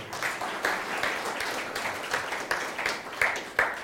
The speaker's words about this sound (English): Give Him the Lord a clap, eh?